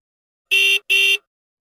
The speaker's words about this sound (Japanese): クラクションを鳴らされた有利はギアをドライブに入れ、元いた駐車位置にそれを戻した。